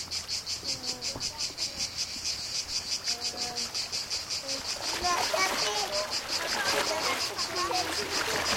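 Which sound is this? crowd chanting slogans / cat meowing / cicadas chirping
cicadas chirping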